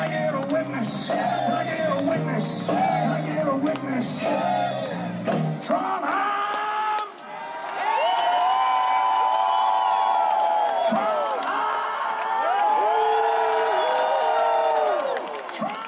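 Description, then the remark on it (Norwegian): A concert crowd of 37,000 at Granåsen in Trondheim, Norway, roars in wet weather with sustained cheering, scattered whoops and shouted voices rising over the din, loud and continuous throughout, with a brief dip before the noise swells again. “Trondheim til stor eh, jubel”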